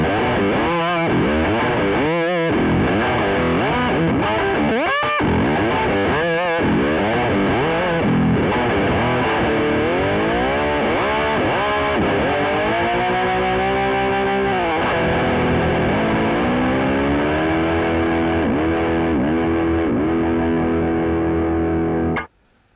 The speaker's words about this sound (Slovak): Taktiež nemôžem opomenúť Wemi, je to legendárny pitch shifter od spoločnosti Digitech. Nemám asi k nemu čo dodať, proste znie takto a ide tam o to, že posúva signál o oktav vyššie alebo nižšie.